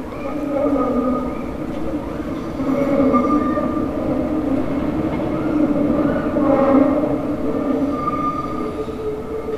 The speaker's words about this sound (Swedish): Jag tar spårvagnen i varje fall.